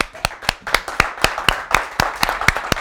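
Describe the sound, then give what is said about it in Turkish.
A crowd claps together in a steady, quick rhythm, about four claps per second. The sharp, loud beats sit over a continuous wash of scattered applause, with no talking. “Hepimiz alkışlayalım mı?”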